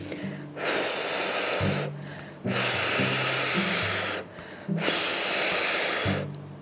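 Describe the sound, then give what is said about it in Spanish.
Three long, forceful breathy blows, each a loud rush of airy hiss, made by a voice imitating the big bad wolf huffing and puffing at the first little pig's straw house, with low humming tones between the gusts. “Y eso fue lo que hizo. Sopló y sopló”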